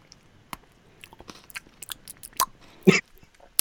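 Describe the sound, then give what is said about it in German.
Wet smacking and crunching as someone chews while eating, a string of irregular bites and mouth clicks with a louder crunchy burst near the end, no talking. “Ich hoffe, der steht auf Schmatzgeräusch.”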